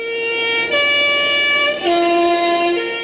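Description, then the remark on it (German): A loud horn of a Swiss postal bus plays its three-note call: three sustained, brassy tones in a stepped sequence, with no voices present. “Was der Komponist Giacchino Rossini und die Hupe der Schweizer Postautobusse gemeinsam haben, das hören Sie in dieser Episode der Audio Travels.”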